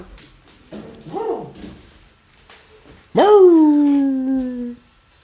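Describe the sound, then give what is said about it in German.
A dog whimpers softly, then lets out a loud, drawn-out whine that starts high and slides down before trailing off, with no talking. “Weiß ich nicht, frag deinen Hund.”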